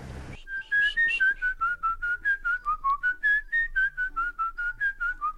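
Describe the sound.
Someone whistles a quick, bouncy tune, short notes repeated in a steady rhythm for several seconds, clear with no talking.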